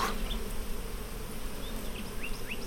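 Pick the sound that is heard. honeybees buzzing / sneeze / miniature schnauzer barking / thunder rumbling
honeybees buzzing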